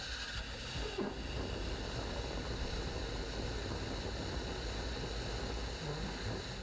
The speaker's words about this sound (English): Much of that rocket engine is 3D printed. And that was that full, full test, full cycle. 20,000 pounds of force, or uh, thrust force, and it worked just well, just, uh, just fine.